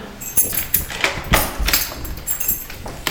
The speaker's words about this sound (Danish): Nu skal jeg lige finde en rigtig nøgle her